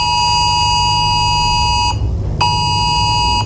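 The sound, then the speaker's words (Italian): A loud, harsh emergency alert test tone in Italy, received on a phone via the regional cell tower without any app, blares steadily, cutting out briefly for about half a second before resuming, with no one speaking. “Allora, questo questo è un sistema tu non devi scaricare nessuna app, eh, basta che il telefono è collegato alla, nella tua regione, appunto un traliccio, chiamiamolo così, della tua, tua regione”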